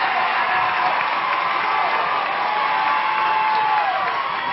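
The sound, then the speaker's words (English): A large basketball crowd gives a standing ovation for the Brown and Gold, with one minute left in the first half: a dense, steady roar of clapping and shouting that stays loud and unbroken for the whole few seconds. “A standing O for the Brown and Gold, and there's one minute exactly to go in this first half.”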